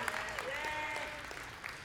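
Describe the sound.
An audience breaks into steady applause, a dense wash of many hands clapping, with a few raised voices or whoops riding over it throughout.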